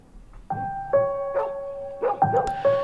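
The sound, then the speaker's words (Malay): A dog barks repeatedly at night, about six sharp, tonal barks in an uneven rhythm, fairly loud, with no talking. “Kemudian terdengar ke bunyi anjing bising sangat pada waktu itu.”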